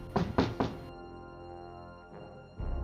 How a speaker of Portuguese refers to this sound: Assim que ele termina de falar, algumas batidas na porta da ferraria dá para se ouvir